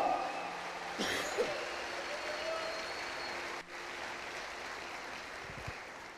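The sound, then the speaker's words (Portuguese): An audience applauds the Lord steadily, a dense wash of many hands clapping at an even, fairly loud level, with a brief dip partway through before the clapping resumes. “Se alguém concorda, dá um glória a Deus e aplauda bem forte ao Senhor.”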